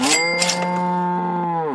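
A single long cow moo, loud and steady with a low, buzzing pitch, sustained for nearly two seconds before dropping off at the end. No voices accompany it.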